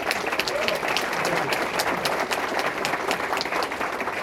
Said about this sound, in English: So, one more round of applause for the YPN board and for our associates.